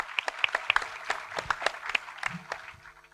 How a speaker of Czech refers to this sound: Děkuji za ten potlesk pro ně.